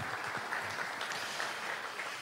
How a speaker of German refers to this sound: Applaus.